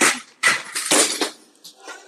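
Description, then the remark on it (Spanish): A vase falls over: a series of loud, sharp clattering crashes in quick succession, the last knocks trailing off into faint rattles. No one speaks. “Ya se cayó el jarrón.”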